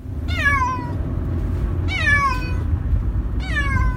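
A cat in a pet carrier, being taken to the vet, meows three times at even intervals, each call loud and drawn out with a falling pitch, over a constant low rumble in the background.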